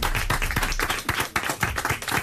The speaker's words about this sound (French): Nous avons également à vos côtés, et là je demande deux fois plus d'applaudissements bien sûr, celle qui est votre chérie dans le film Le Nouveau Jouet dont on va parler pendant une heure et demie, Alice Belaïdi.